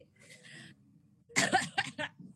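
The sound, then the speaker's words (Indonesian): A short burst of coughing: several harsh coughs in quick succession, following a brief stretch of quiet background noise. “sorry, sambil batuk.”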